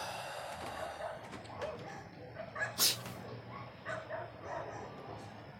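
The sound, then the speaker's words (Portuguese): Several dogs bark repeatedly, their overlapping yips and barks coming in irregular bursts over a low background hum, with one sharper bark standing out midway. “Puta, eu vou ter que tacar alguma coisa naqueles cachorro, cara.”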